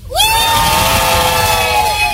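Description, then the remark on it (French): A group of children cheers and shouts together in a loud, sustained burst of high-pitched voices on a school bus, rising sharply at the start and holding steady. “Il ah, vient de chauffer les enfants. Les enfants, ça va”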